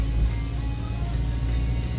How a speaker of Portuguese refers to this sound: Peraí que eu tô ultrapassando o caminhão, velho.